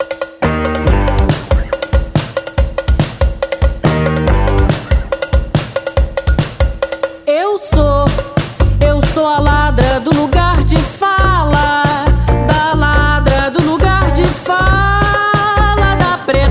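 A recorded samba-style song intro plays loud, with steady percussion and a bright cowbell-like clank driving the rhythm, then melodic instruments swell in midway; no one speaks.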